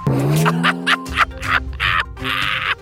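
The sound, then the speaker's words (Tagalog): A loud motorcycle exhaust revs in quick repeated bursts, the engine note climbing and dropping with a raspy, crackling edge for a few seconds. “Na pinapaharurot nyo mga maiingay yung motor, tapos gwapong-gwapo kayo sa sarili nyo.”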